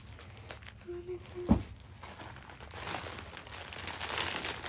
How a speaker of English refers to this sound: I'm gonna have to cut this bag. I'm so sorry for the bag. I like how I'm apologizing to a plastic bag. I'm sorry, baggie.